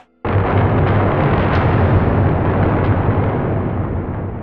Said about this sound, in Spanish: Y el trueno. Y el trueno. Un trueno, pero vamos, como los dioses mandan.